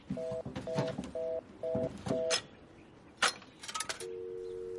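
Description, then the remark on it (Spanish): A telephone being dialed again: five short, evenly spaced tones, followed by a few clicks and rattles, then a steady tone that runs to the end, all fairly loud with no voices. “Julius vuelve a marcar.”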